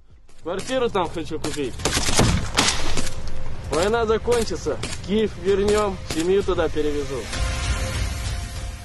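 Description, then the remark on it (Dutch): Sharp gunshots crack out irregularly, a few single shots and short bursts, as two Russian soldiers in a Russian Ministry of Defence advert run through a trench and fire now and then, with Ukrainians nearby; men shout and call to each other over heavy background noise throughout. “Ze rennen in dat spotje door een loopgraaf. En kennelijk zitten de Oekraïners vlakbij, want af en toe schieten ze ook terwijl ze rennen.”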